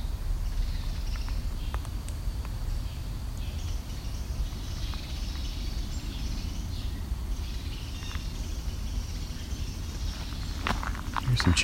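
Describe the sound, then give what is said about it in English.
Chickadees and house sparrows give scattered, thin chirps and scolding calls in the distance, over a steady outdoor rumble with footsteps crunching along. “Chickadees and some possibly house sparrows. Very annoyed sounding.”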